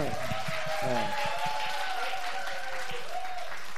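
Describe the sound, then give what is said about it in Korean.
An audience claps steadily throughout, a dense, even wash of many hands with a few voices faintly calling out over it at the start. “우리 박수 한번 주세요.”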